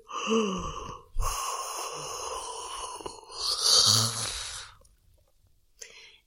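yawning

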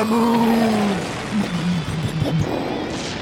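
explosion sound effect

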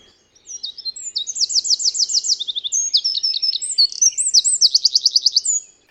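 eurasian wren singing

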